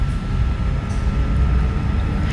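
train

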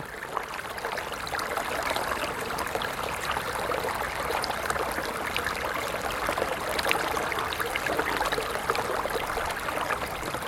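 flowing water

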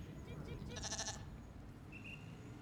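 sheep bleating

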